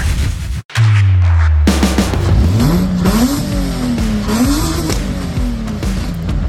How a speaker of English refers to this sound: Hey, those car sounds courtesy of friend of the show, OBD1 Kenobi. Those were his uh, flat six swapped Subaru noises. The guy stuffed a flat six out of a Subaru Tribeca, Legacy, whatever into a old school WRX